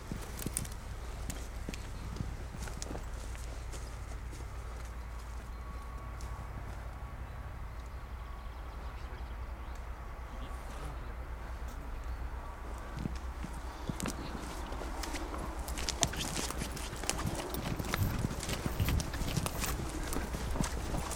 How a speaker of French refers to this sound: Ah ouais, il y a des chevaux là.